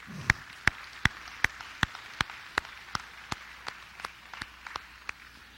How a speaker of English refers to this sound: Would you give our mothers a hand clap of appreciation again today?